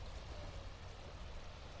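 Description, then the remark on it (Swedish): A steady wash of waves against the shore, a continuous hiss and rumble of moving water with no distinct breaks, heard alone without any voices. “och vågorna bryr sig inte.”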